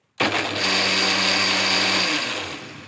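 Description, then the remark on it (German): A blender switches on abruptly and runs loudly and steadily, mixing a yellowish-golden smoothie of ginger, spices and berries, its high whirring motor whine holding a constant pitch, with the tone shifting slightly near the end as the contents churn. “denn wir haben hier einen Mixer stehen”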